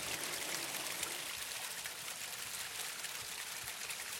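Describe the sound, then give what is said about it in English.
A steady rush of flowing stream water, constant, with a bright hiss and no pauses or voices throughout. “If you notice that water, it has carved out some of the most beautiful canyons, I think of the Grand Canyon, and that is just from its flowing.”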